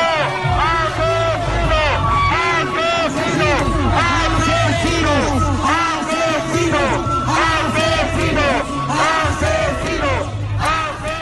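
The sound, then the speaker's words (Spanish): A loud, continuous crowd of about a hundred detractors and supporters of pre-candidate Gustavo Petro shouts slogans, jeers and hurls insults, many raised voices overlapping with brief whistles cutting through, hostile and chaotic without a pause throughout. “Entonces tenemos la situación de los chiflidos, rechiflas, insultos al grupo de personas”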